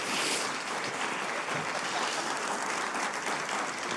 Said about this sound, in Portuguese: Dê uma, faz uma forte salva de palmas para Jesus.